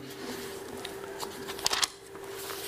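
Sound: bible pages being flipped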